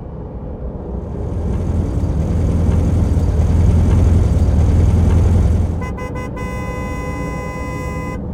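A heavy truck engine rumbles loudly as the truck arrives at 6 a.m., its deep growl swelling and holding for several seconds, then easing off as a steady, sustained horn tone sounds over the idling.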